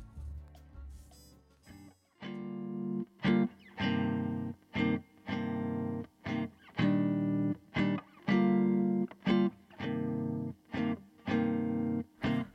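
A band plays a song in steady, punchy bursts of full chords separated by short gaps, giving a choppy rhythmic feel with a slightly distorted, effected tone at a moderate level.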